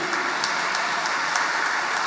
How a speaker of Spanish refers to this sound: Si tú has mermado tu competitividad, tu vigencia, por principio, por ética, por moral, entonces démosle un aplauso al Señor por tu vida.